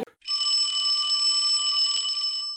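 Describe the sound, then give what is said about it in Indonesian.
A phone ringing tone sounds once as a phone call is placed, a steady, bright electronic ring held for about two seconds, fairly loud, with no voices around it. “Kita iya. telepon dulu yuk.”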